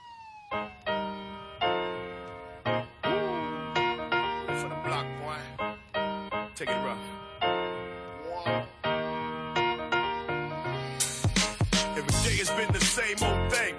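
A hip-hop track plays with sustained melodic tones and wailing, siren-like sweeps over a steady rhythm. Heavier drum hits come in toward the end, with no vocals yet.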